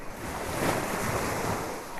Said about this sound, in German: Ah, Meeresrauschen. Eine Welle nach der anderen. Wir blicken auf das blaue Meer. Die Liege ist gepolstert. Man liegt unterm Sonnenschirm, hört das Meeresplätschern, das Rauschen der Wellen ah, und kann so vor sich hin träumen.